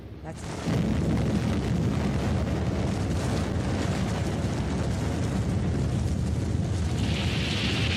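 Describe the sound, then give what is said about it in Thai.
A deep, sustained roar of a volcanic eruption's shock wave blast, rising sharply after a quieter start into a loud, rumbling wall of low-frequency noise that continues steadily, with a hissing rush appearing toward the end. “นี่คือช็อคเวฟนะคะ นี่ก็กคลื่นที่มันเกิดต่อตามมาเนี่ยค่ะมันจะเป็นอย่างนี้”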